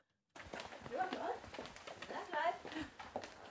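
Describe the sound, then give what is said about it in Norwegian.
Quick, steady footsteps echo along a hard-floored corridor in the Norwegian prime minister's office, followed by knocks on the door to say hello to Erna Solberg, with indistinct voices murmuring in the background. “og vi kan egentlig bare rett og slett høre der, hvor jeg går gjennom korridorene og banker på døra for å si hallo til Erna.”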